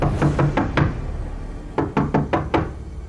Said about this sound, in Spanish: Tocó la puerta una, dos y tres veces, pero Millie no respondió.